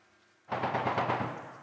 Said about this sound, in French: Des tirs de mitrailleuses claquent, brisant le silence de la tranchée.